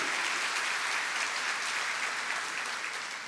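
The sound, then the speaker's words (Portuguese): A crowd claps steadily in a dense, continuous wash of applause given to God, holding loud throughout and easing off slightly at the end, with no voices over it. “Pode dar uma salva de palmas ao nosso Deus.”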